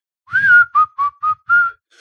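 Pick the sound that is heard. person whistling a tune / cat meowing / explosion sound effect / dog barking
person whistling a tune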